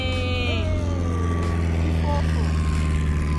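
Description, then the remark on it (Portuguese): A small propeller plane drones steadily overhead, passing above a small island in a dried-up lagoon, its engine a loud, continuous low hum with buzzing harmonics that shift slightly in pitch as it passes. “Ó, um aviãozinho passando, galera.”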